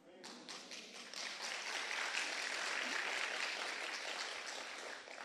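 A church audience applauds steadily for several seconds at the opening of its new prayer hall, a dense, sustained patter of many hands clapping at once, even in loudness throughout.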